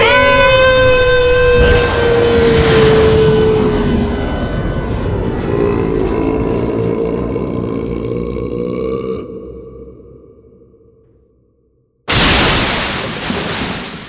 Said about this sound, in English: Uh, what's that sound? Of course, the fizzy water. Exactly. We poured enough fizzy water into Macho's stomach to create an ultra high powered super duper rocket burn explosion.